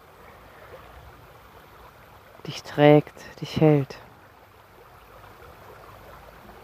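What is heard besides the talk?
river water flowing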